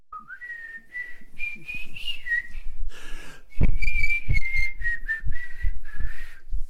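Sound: person whistling a tune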